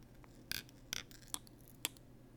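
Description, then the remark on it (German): A gimbal stabilizer's power-on tone as it is switched on, its battery at 19%: four short, bright chirps in an uneven sequence, the first two fuller and buzzier, the last two sharp clicks, with no talking. “Ja, das ist der Ton. Das ist immer so, es ist nicht kaputt oder so.”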